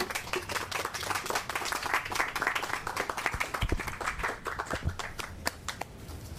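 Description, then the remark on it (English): An audience applauds steadily, a dense patter of many hands clapping with sharp individual claps scattered through, holding an even, moderately loud level throughout without any talking. The audience is applauding a poet after her reading at the Poets at Art Fest 5 Poetry Festival. “There's Colleen Lyons. Let's give her another hand.”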